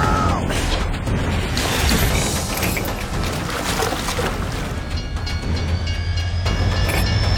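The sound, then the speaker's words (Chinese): A train rumbles steadily and loudly, with dense mechanical clatter and a faint rising whine of metal appearing partway through as it slowly begins to move. No one speaks. “而火车呢也缓缓启动”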